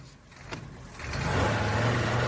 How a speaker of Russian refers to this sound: Дизель на 2,4 литра. Четырехцилиндровый. Самая мощная городская машина в истории. Звучит как музыка.